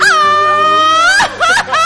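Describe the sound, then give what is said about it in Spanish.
A loud mariachi-style grito: a long, sustained high yell that wavers in pitch, then breaks into short rising whoops and laughing trills at the end. “¿Qué tal ese grito?”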